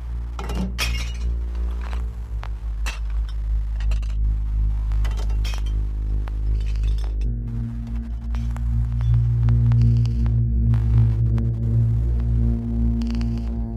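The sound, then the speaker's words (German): Glass shatters again and again, sharp crashes and clinking shards scattering across the whole stretch, loud over a steady low droning hum, with no voices. “Und die Schönheit liegt in Scherben.”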